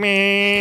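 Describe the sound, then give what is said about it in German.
A voice makes a short, steady buzzing hum in imitation of a solid-gold mini moped rattling through Dubai, loud, held evenly for under a second with no talking. “Ja, ja, und, es fährt, und es hört sich so an beim Fahren.”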